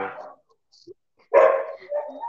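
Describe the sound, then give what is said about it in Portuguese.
Dogs bark a few times: a short burst, a pause, then a loud harsh bark followed by more yapping, with faint scattered noises between. “Cachorro. Nossa, odeio. Eu acho que acharam um gato aí, viu?”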